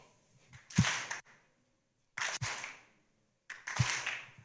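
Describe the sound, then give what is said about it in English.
A crowd claps together in unison on a leader's count of three, three sharp, loud bursts of many hands spaced evenly about a second and a half apart, each with a slightly ragged tail, with silence between. “Everybody with me, if you could let go of your phones or whatever you have in your hands and just and when I say three, we all clap.”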